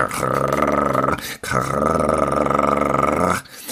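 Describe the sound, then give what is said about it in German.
A voice imitates a rattling chainsaw: two loud, harsh, buzzing bursts, a short one and then a longer one, separated by a brief pause. “Wir vernehmen es jetzt, man hört eine Kettensäge knattern.”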